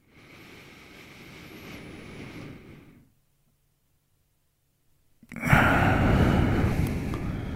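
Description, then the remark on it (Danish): A slow, breathy inhale lasting a few seconds, a pause of near silence, then a loud, rushing exhale through the mouth by a person doing a relaxation breathing exercise, with no talking. “Okay, det kom ud gennem munden der.”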